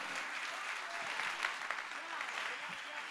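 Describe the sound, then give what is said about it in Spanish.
An audience applauds the Lord steadily, a dense wash of many hands clapping at an even loudness throughout, with faint voices mixed into the clapping. “Dele un aplauso mejor de ahí al Señor.”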